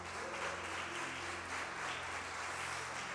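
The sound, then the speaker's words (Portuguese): An audience applauds the Lord together, a dense, steady wash of clapping that holds at an even loudness throughout, with a low hum and faint tonal music underneath. “Vamos aplaudir o Senhor porque Ele é bom demais, gente.”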